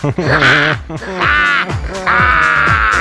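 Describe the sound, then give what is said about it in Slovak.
A voice makes three drawn-out, harsh calls in a row, imitating a crow's caw, each loud with short breaks between them. “Ha, to je jak vrana.”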